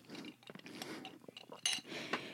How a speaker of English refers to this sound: sorry, take a sip of my coffee.